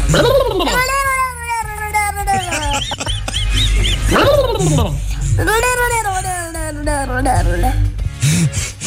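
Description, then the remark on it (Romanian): A young boy imitates a turkey gobbling: several loud, warbling cries that rise and fall, separated by short pauses. “Se face ca curcanul.”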